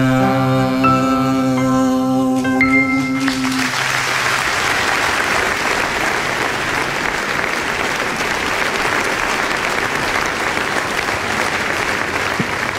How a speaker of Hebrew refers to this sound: מחיאות הכפיים לאסנת ולשלמה וישינסקי.